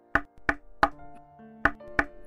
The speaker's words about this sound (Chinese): 门外传来一阵敲门声，“谁呀？这么早就来敲门？”